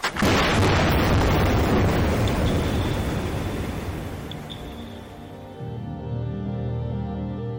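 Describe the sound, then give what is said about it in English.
A single deep underwater air gun blast from a seismic survey for fossil fuel drilling spots on the ocean floor, with boats of about 30 or 40 air guns going off at once, hits, then rolls into a long, loud reverberating rumble fading into a low steady drone. “That is seismic surveying.”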